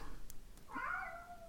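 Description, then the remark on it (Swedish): A single drawn-out meow from a cat chasing leaves rises in the second half, moderately loud, against a quiet background with a couple of faint clicks before it. “Ni får ursäkta, det är min katt som jagar löv här bakom.”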